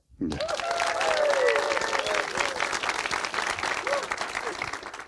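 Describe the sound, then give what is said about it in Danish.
The live audience at a live show recording in Denmark bursts into sustained applause, dense clapping that starts abruptly and holds steady for several seconds, with a few cheers and whoops rising above it. “Velkommen til en helt særlig udgave af Rumsnak, nemlig Rumsnak Live med et spil levende publikum, som man kan høre her.”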